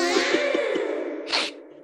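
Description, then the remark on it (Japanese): A stray cat yowls in spring in a long, wavering, tonal cry that rises into a strained, nasal peak near the end, loud with no one talking. “野良猫や。変わった声で泣きはるんやな。”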